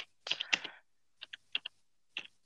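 Computer keyboard keys clack in a quick burst of typing while someone googles something, followed by a few sparse, crisp keystrokes in pairs and singles. Sharp, bright clicks with short pauses between them, no voices.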